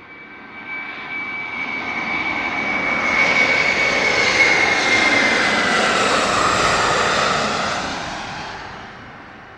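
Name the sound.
airplane engine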